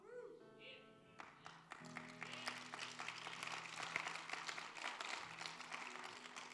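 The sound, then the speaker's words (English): An audience breaks into sustained applause, a dense wash of many hands clapping that swells after a sustained tone in the opening second and continues steadily to the end. “So every single person that's clapping their hands right now is going to help out with children and youth ministries.”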